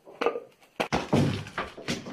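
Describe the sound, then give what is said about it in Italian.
A very large chocolate Easter egg is smashed with a head at its official Easter opening: a few dull knocks and sharp cracks, then a burst of crinkly, crunching breakage over about two seconds, with no talking. “E non è Pasqua se non rompo con la testa l'uovo!”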